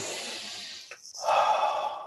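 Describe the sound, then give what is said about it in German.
A deep, slow breath: a long airy exhale, a brief pause, then a fuller, louder breath that stretches to the end. No talking. “tief und ruhig atmen”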